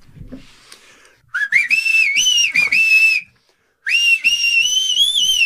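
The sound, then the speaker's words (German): Loud whistling of a song melody, a sustained tonal line wavering between notes in two long phrases separated by a brief pause, with no talking. “Wahlweise mit dem Song … von …. Natürlich. Wird sich dann so anhören, in laut.”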